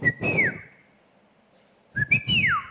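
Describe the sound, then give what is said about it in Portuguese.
A person imitates the whistle signal Obadiah (Obadias) made when arriving at night with bread and water, which was answered. The person whistles twice: each a short steady tone that rises, then glides downward, separated by a pause, with breathy low noise around the whistles. “Ele fazia um assovio,”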